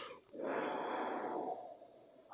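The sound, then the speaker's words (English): A voice imitates breath whistling through the gaps in a set of steel fangs lying on the ground: one long, breathy exhale lasting just over a second, with a thin airy whistle riding on top before it tapers off. “oh, like and it it all kind of whistles as it passes through the gaps in the steel fangs.”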